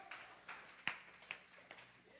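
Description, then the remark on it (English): A handful of scattered, hesitant claps from an audience, quiet and irregular, a few isolated slaps spread over a couple of seconds rather than full applause. “Others were like, should I clap?”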